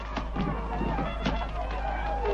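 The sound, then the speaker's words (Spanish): Quick running footsteps, a handful of sharp uneven thuds, as a young man flees from a threatening friar, hurrying past over a constant low hum and faint background murmur. “El fraile se remanga amenazante y el joven huye corriendo.”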